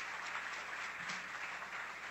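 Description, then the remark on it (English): A roaring round of applause sound effect: dense, steady clapping of a large crowd, loud and continuous with a hissy wash of many hands clapping at once, no voices standing out. “Let me give her another roaring round of applause right now.”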